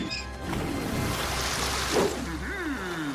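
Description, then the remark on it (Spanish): A thin, steady wash of running water as a man opens a valve to fill an empty swimming pool and barely any water comes out, continuing throughout at low volume, with a brief voice sliding in near the end. “… abre la válvula para llenar la piscina.”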